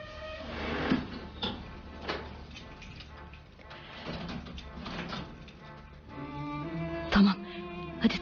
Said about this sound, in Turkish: Şu kapıyı tekrar kilitleyelim.